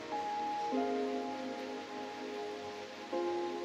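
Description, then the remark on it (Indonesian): Steady afternoon rain patters on scorched ground in a continuous, even hiss, with soft sustained musical tones drifting underneath that shift pitch a couple of times. No voices are present. “Siang ini pecah, bumi hangus ditaburkan sengatan-sengatan hujan.”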